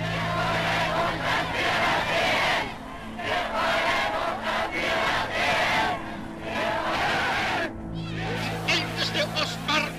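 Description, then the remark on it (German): A huge crowd cheers and shouts frenetically for Adolf Hitler as he arrives in Vienna on 12 March 1938, after the annexation of Austria to Nazi Germany. A loud, dense roar of many voices that barely lets up, dipping briefly twice before surging again with sharper yells near the end. “Eine frenetische Menge jubelt ihm zu, der Nationalsozialismus hat Österreich im Griff.”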